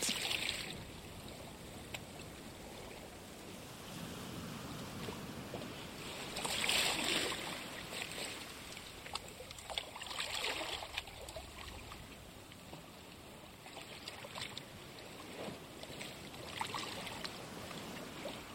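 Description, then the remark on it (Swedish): Soft, lukewarm water sloshes and laps gently against the feet and lower legs of a person sitting on a stone, with small irregular splashes rising now and then over a steady watery background. No voices are present. “Vattnet skvalpar mjukt mot dina fötter och underben.”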